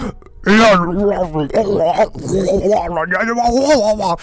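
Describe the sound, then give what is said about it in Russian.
A man's voice imitates a male dubbing translator screaming into the microphone while voicing emotional scenes: a few seconds of loud, strained, harsh, wavering yells right up against the microphone, with a distorted, close-up edge. “Вот так вот он просто орал в микрофон, и я такой, господи боже.”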